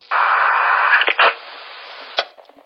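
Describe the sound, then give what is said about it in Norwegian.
A burst of band-limited police radio static with a brief crackling transmission break, followed by a quieter hiss and a sharp click, like the channel keying on and off. It is an original police radio recording taped on cassette in 1994 and later digitized. “Opptaket du för høre er de originale av politiradioen.”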